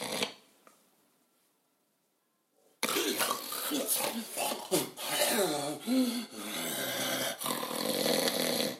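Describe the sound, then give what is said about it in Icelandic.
After a brief near-silent start, a voice imitates the snoring of a brother napping on his bed: loud, harsh, raspy rattling breaths with rough voiced grunts, continuing steadily for about six seconds. “ég hef heirt í bróðum minnum leggja sig á rúmunu stundum hann hlustar ekki á þetta podcast en ég má segja þetta hann alveg svona heyrist svona hljóði í honum”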